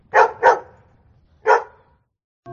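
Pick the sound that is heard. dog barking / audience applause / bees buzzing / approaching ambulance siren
dog barking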